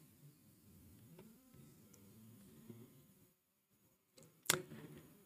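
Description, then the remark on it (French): Two agitated bees buzz in a restless drone for a few seconds, then fall quiet before a sudden sharp burst of noise. No one speaks. “Pas pour deux abeilles très très très très vénères.”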